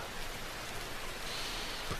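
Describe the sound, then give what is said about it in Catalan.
Steady rain of large, round drops falls, a dense, even hiss of drops pattering on the ground and grass without pause, moderately loud, with no voices. “Ah, l'olor de la pluja.”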